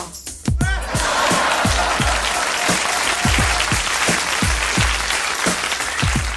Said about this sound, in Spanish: Fuerte el aplauso público. Dije público.